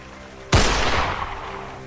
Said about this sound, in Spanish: Ella disparó directamente al sacerdote.